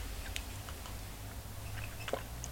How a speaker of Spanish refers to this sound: El café ya se refrescó, así que me voy a dar el primer sorbito del día para empezar rápido la jornada informativa que está llena, llena de temas y noticias.